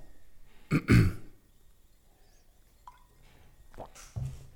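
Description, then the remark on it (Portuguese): Someone takes a sip of water: a soft slurp and gulp, a faint click of lips, then a swallow and a light throat-clearing sound, with no talking. “Esta pausa foi um golo d'água.”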